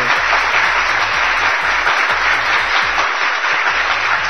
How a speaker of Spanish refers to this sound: Bueno, el señor Gonzalo me dice que él sería el gobierno de la mañana. Aplauso para Gonzalo.